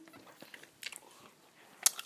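smacking and chewing

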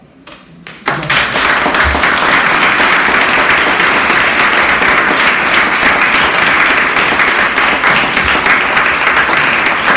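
audience applause

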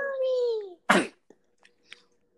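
a sneeze

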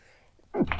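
sneeze

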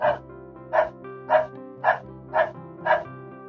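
dogs barking

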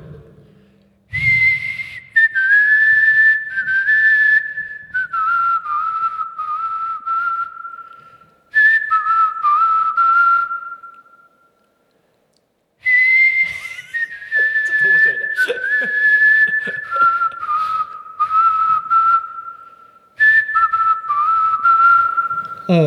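human whistling a melody

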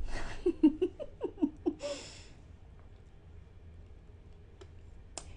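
speaker drinking water

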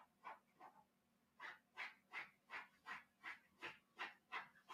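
dog making noises

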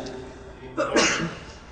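sneeze

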